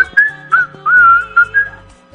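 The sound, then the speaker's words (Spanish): A caller on a phone line whistles a short tune of several sliding notes, sounding thin and tinny, with no talking alongside. “No más chifló.”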